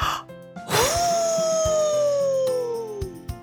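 A single long wolf howl swoops up quickly, then slowly glides downward in pitch for about two and a half seconds, loud and sustained over a faint low background hum.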